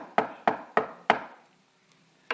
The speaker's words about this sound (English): In fact, if the Laodicean church is a picture of the church in the last days, Jesus is on the outside of the church knocking.